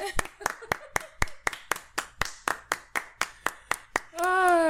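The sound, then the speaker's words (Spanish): About fifteen sharp hand claps land in a steady, quick rhythm, loud and crisp, with a voice murmuring underneath, then a sustained voiced sound rises at the end. “Chamo, te voy a dar un aplauso. Me aplaudirán.”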